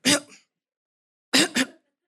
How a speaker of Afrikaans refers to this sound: Okay en ek wil begin hoes en nou is dit doodstil net so.